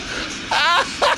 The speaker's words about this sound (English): Two moose fighting.